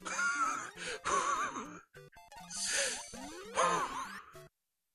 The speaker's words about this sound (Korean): 아, 무슨 숨소리가 이래?